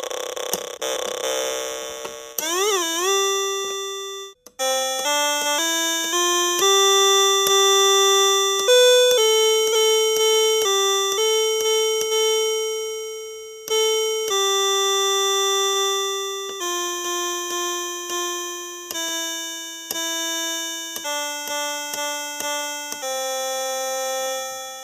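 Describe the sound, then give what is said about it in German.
A homemade Cosmos sound machine plays buzzy, harmonic-rich tones, first a few warbling pitch sweeps, then a steady run of held notes stepping up and down like a simple melody. No one speaks. “Wenn ihr die Cosmos Soundmaschine ausprobieren wollt”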